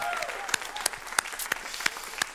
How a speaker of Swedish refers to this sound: Ska vi ge dem en applåd? Amen.